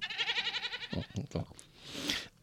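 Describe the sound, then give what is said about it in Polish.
A sheep bleats in a long, wavering, tremulous call from a recording playing back, followed by a few shorter bursts of sound and a breathy rustle. “Mam z tego nagranie, niestety. On nagrał. Ale tylko te owce co do nas”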